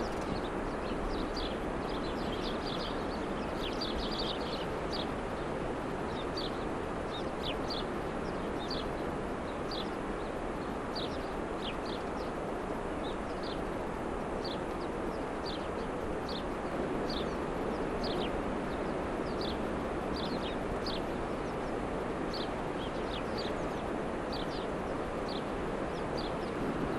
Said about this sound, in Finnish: Ja siellä on varpusia. Ja kuunnelkaa, kun pääsee tuulelta suojaan, minkälaista on.